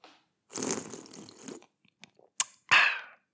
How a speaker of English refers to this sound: And that sip sounded different. It is because that was a beer